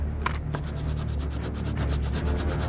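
Glitter markers squeak and scratch across white canvases in a quick, steady run of short rubbing strokes, dry and papery, with a low hum underneath and no voices.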